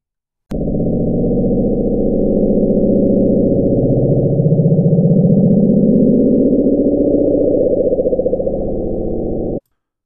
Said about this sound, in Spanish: Durante la Guerra Fría, entre Estados Unidos y la Unión Soviética, el ejército instaló micrófonos en el océano para detectar submarinos nucleares. Estos micrófonos detectaron un sonido extraño en el año 1997. Puedes escucharlo ahora.